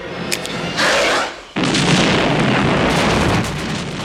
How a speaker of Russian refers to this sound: Васкис и Горман взрывают себя вместе с кучей инопланетных гадов.